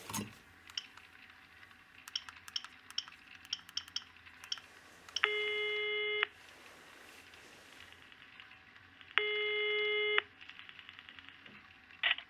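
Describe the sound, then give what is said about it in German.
A run of quick clicks like buttons being pressed, then two long, steady buzzing ring tones separated by a pause as a phone call to police headquarters, the Kriminalpolizei Reutlingen, rings through. No one speaks. “Zuerst rufe ich jetzt im Präsidium an und ersuche Unterstützung.”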